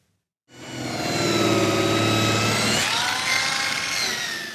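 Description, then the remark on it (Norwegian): Sanding machines in experienced hands smooth a section of a garage door at the furniture firm Feel Free Production in Eid, Sogn og Fjordane; after a brief silence, a steady, dense buzzing motor hum with shifting high-pitched grinding tones as the tools work over the surface. “Med erfarne hender blir et ledd i en garasjeport finpussa med slipemaskiner.”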